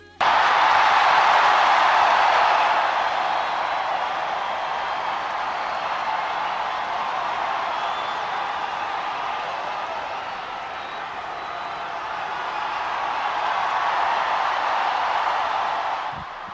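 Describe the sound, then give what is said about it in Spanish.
A large crowd applauds in St. Peter's Square, a dense, continuous wash of clapping and cheering that stays loud throughout, dipping slightly midway and swelling again near the end. “Esos serán los aplausos de la plaza de San Pedro.”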